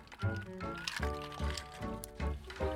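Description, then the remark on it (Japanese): Drinks being poured for a toast, a gurgling fill with a steadily rising pitch and a few soft knocks of glass, quiet and uninterrupted over a few seconds. “せっかくなんで飲みましょうかまずね、はい、飲みましょう乾杯を”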